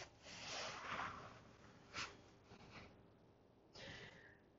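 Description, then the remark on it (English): Someone blows their nose: a long breathy honk, then a few shorter snorting blasts with brief pauses between them, with no talking. “and when I talk about things and I cry, I blow my nose.”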